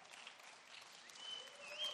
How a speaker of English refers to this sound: Oh, I know it's not popular. I didn't think I was going to get many claps.